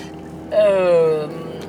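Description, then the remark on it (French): Steady low road and engine rumble from inside a moving car, with a brief tonal whine that slides slightly downward partway through before the hum continues alone. “Je vous rappelle que je suis en voiture et donc je me concentre aussi sur la route.”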